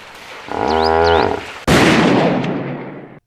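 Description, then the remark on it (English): A deep, bellowing hippo call is cut off by a single loud gunshot, which rings out and fades slowly over the next second and a half. No one speaks. “I I was just pointing. I didn't mean the gun.”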